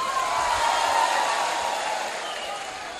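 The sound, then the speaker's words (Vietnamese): A steady wash of audience applause given to congratulate everyone present, dense and hissy with many hands clapping at once, holding at an even level for about three seconds before easing off slightly. “và sự có mặt của quý vị tất cả hôm nay đều ờ, có nụ cười vui vẻ trên gương mặt xin quý vị dành cho tràng pháo tay để chúc mừng toàn thể quý vị”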